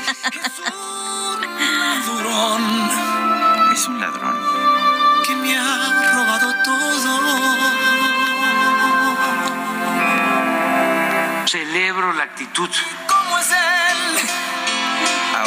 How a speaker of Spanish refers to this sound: Porque hay que hacer tiempito. Qué buena está esta rola, ¿te gusta?